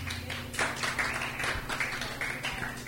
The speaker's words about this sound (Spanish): Un, un aplauso para la dama, por favor.